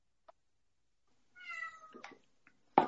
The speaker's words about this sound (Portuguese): Não sei se está ouvindo o gatinho aí.